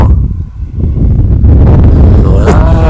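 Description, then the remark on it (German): A loud gust of wind buffets the microphone, a dense low rumble that swells and holds steady for a few seconds, drowning out everything else. “oh, jetzt kommt ja Weile Windböe.”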